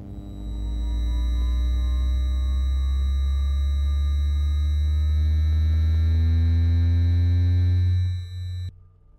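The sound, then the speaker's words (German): A loud, steady electromagnetic hum from an electric tram motor, with layered tonal harmonics drifting slowly upward in pitch, then cutting off abruptly near the end. No voices are heard. “Straßenbahnen?”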